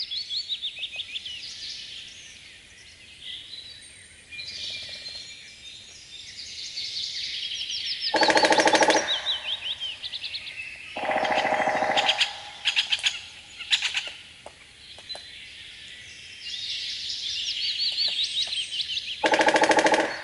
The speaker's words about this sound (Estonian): nüüd läheme loodust kuulama Eesti suurimasse põlislooduse kantsi, Alampedja looduskaitsealale. Kirne matkaraja ääres trumeldavad ja toksivad rähnid